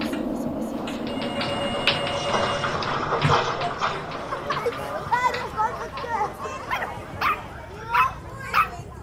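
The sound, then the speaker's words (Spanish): A puppy yips and whimpers, with several short, high, sharp barks coming in bursts toward the end, over a steady, busy background rumble. “Hasta que una tarde cambió y me dejó adoptar al perrito.”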